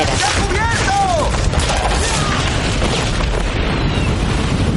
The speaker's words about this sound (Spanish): varios soldados se refugian de las balas y explosiones en unas